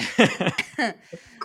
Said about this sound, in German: Hast du gerade gehustet? Ja, aber das war kein trockener Husten. Keine Panik.